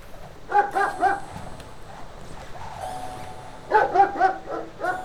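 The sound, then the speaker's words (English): A neighbor's dog, chained to a tree outside, barks in two quick bursts of three or four sharp yaps each, separated by a short pause, with no one speaking. “I think the neighbor's dog got loose.”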